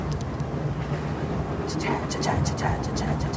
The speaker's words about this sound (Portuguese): vai passar um trem, hein? Olha o barulho de trem.